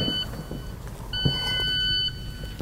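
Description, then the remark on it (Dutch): An infusion pump alarm sounds because the drip bag of carboplatin is empty: a steady, high electronic tone that cuts out briefly and then resumes, with a low rumbling hum underneath and no one talking. “Wat is dat? Het zakje leeg? Ja, het zakje is leeg.”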